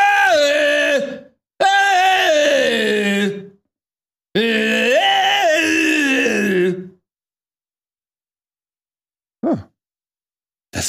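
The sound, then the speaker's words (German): A voice imitates screaming in sleep with three loud, drawn-out wailing cries, separated by short pauses, followed by silence and one brief final sound. “Wie sieht so ein Schrei im Schlaf aus?”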